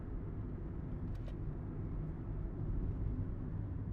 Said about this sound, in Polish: W końcu zjechaliście w dół i zatrzymaliście się przy takim nowo wbudowanym budynku, gdzie auto się zatrzymało